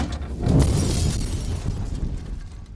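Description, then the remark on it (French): A sudden loud blast as a gas-fuelled traffic signal lantern explodes, followed by shattering glass and a rumbling, crackling tail of falling debris that slowly fades over a few seconds. “l'un de ses agents est victime de l'explosion de la lanterne qui, rappelons-le, est alimentée par le gaz.”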